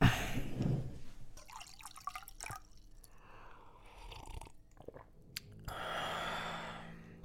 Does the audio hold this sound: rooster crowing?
no